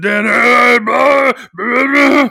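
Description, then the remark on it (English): Three loud, drawn-out vocal groans in quick succession, each a strained, throaty moan separated by short breaks, with no words spoken. “Oh, but the only so thing good. that you hear are grunts and stuff, and I, you instantly think of Jack in the Maze.”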